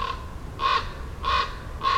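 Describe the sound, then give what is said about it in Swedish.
A common raven flying around calls several times, with harsh croaking notes spaced roughly evenly apart, plus a faint call at the very start. No one speaks. “Och någon korp flyger omkring.”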